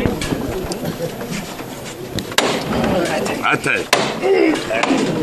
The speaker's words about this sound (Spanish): en este momento vuelve a sonar eh, el, martillo. Vamos a esperar este momento.